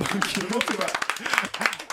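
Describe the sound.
Scattered applause and hand claps from a small group for the winner of a quiz, running under overlapping voices and laughter for a couple of seconds.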